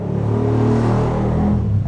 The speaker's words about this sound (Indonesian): anjing motor. Sorry guys karena rumah saya di pinggir jalannya.